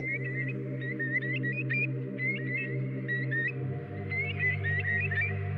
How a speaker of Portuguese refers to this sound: É aí, precisamente, que estacionam algumas espécies de aves limícolas, como o nosso maçarico real.